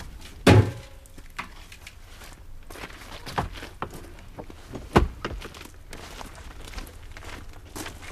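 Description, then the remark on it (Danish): A small bucket is lifted and handled, with a sharp clank early on, a softer knock midway and another solid thunk later, amid quiet shuffling and rustling in between. “Jeg kan også godt tage det lille spand her.”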